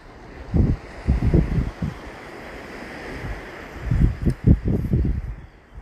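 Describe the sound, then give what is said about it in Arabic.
Ocean waves wash in steady surges, with a broad hiss of surf and low rumbling swells rising and falling, some gusty wind noise over the microphone, and no talking. “وببطء مركز مع صوتي وصوت الموج”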